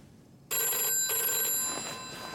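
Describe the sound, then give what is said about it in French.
A telephone rings with a bright, metallic bell tone that starts abruptly and sustains in two bursts, fairly loud, with no talking; it is the phone in the Paris apartment of Airbus CEO Bernard Latière in 1975. “Nous sommes en 1975 et depuis son appartement parisien, Bernard Latière, nouveau PDG d'Airbus, a encore la voix endormie quand il décroche le téléphone.”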